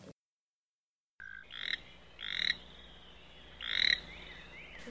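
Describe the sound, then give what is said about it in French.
A toad croaks in three drawn-out, rising trills with short pauses between them, fairly loud against a quiet background with no voices. “Plus loin, un crapaud chasse des moustiques.”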